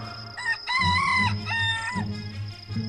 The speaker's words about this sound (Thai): เมื่อไก่ป่าส่งเสียงกันขันครั้งแรก ในพรานก็ตื่นนอนและเปิดประตูหน้ากระท่อม